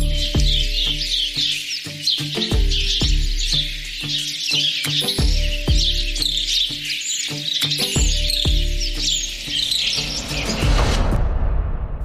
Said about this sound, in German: Ich glaube, für diesen Moment würden wir sagen, so 10 Sekunden Vogelgezwitscher. 10 Sekunden, und jetzt bitte.